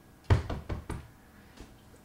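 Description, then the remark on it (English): An older woman knocks four quick, evenly spaced times on a car window while someone sits inside at lunchtime, sharp and fairly loud, followed by a single fainter tap a moment later. No one speaks. “And it's like on the window, you know, some old girl.”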